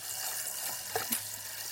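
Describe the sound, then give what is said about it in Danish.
Steady crackling sparks from a hand-cranked electrostatic machine as electrons jump between its two balls, a dense sizzling hiss broken by two sharper snaps near the end; no voices. “Og så når der kommer stort nok sådan en forskel mellem de her to kugler, der er på den her maskine, så springer alle de her elektroner over på den anden kugle så ser man altså en gnist, og det er jo ligesom et, et lille lyn, vi får lavet her.”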